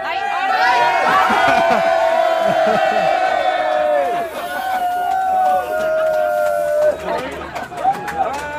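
A dense crowd shouts and cheers loudly and close by, many voices overlapping in sustained calls and whoops that continue without a break for the whole stretch.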